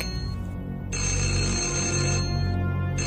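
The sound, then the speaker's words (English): A mobile phone ringtone rings loudly for an incoming call from a gynecologist on a Sunday morning, its bright electronic tone sounding in a long burst, briefly stopping, then starting again, with no voices present. “That moment, my phone rang.”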